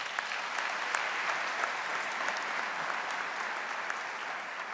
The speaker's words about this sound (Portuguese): Então aplauda ele bem forte.